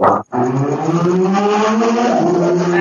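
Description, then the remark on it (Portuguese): A motorcycle engine revs loudly, its pitch climbing steadily after a brief cutoff at the very start, with no voices over it. “Peraí, eu não escutei nada. A Super pegou a moto Eu não escutei.”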